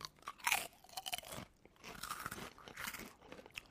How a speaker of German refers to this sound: Wir können ja mal hier, habe ich noch gar nicht probiert. Knuspern.